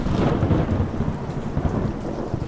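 Steady, heavy rain pours down with a deep, continuous rumble of thunder rolling underneath, dense and loud throughout, with no voices present.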